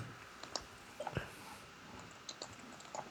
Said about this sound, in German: Ich bin gerade was am Schreiben im Chat. Du schreibst im Chat.